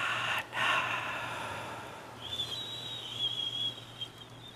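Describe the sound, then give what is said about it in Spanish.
A slow, deep exhale during a breathing exercise rushes out softly for a couple of seconds, then fades into quiet as a faint, thin steady tone lingers in the background. “Exhala.”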